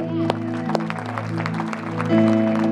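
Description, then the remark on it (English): An audience claps their hands to give the Lord a hand, a scattered mix of sharp claps over steady, sustained keyboard chords, with voices murmuring underneath. “If you believe that, give the Lord a hand”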